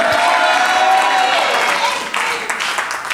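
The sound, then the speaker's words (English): An audience claps steadily for about three seconds at a revelation being preached about Jesus, a dense, sustained wash of hands with raised voices and cheering mixed in, easing off slightly toward the end. “those who are clapping by this revelation, I set you free from every bondage.”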